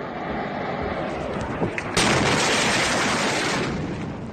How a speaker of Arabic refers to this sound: في أربعة آب 2020 الساعة ستة و دقائق في مساء عادي في بيروت يا شباب البور ولع وعم يفجر كله عم يفجر